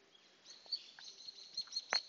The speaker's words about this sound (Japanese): お散歩しながらお外で収録をしております。北海道の朝気持ちいいですね。あの、生えてる木がやっぱりね、違ったり、鳴いてる鳥の声が違ったりするのって、新鮮な感じになるな。